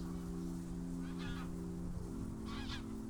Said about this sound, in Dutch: Ja, water draagt geluid. Dus heel vaak worden geluiden versterkt op het water. In de verte wel vogels.